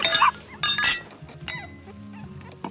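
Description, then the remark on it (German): Glasses clink together twice in quick succession in a toast to a new family member, bright with a brief ringing tone, followed by softer scattered background noises. “Dann stoßen wir an. Auf das neue Familienmitglied.”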